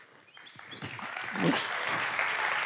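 An audience breaks into applause that starts scattered and quiet, then swells into steady, dense clapping that holds at full strength, with a few faint voices mixed in.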